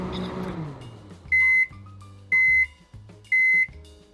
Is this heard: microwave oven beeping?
yes